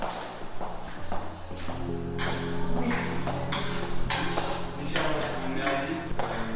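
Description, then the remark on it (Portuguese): A recorded sound installation of a ping-pong ball bouncing down stairs, in a steady series of sharp, bright clicks, roughly two per second, over a low sustained hum. “Portanto, no fundo é o cair, é o cair de uma bola de ping-pong. É exatamente aqui pelas escadas.”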